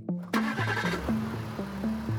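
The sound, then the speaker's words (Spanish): A grey Toyota Corolla's engine turns over and catches, settling into a steady idle with a rhythmic, pulsing throb, outside a restaurant on a freezing night in Paris. No voices are heard. “Imprescindible, pues, compartir coche.”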